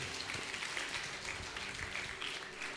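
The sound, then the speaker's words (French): A crowd applauds steadily to acclaim God, dense clapping filling the space with a few scattered cheers mixed in, sustained at even loudness throughout. “Ah, acclame Dieu pour sa vie, acclame Dieu, reçoit.”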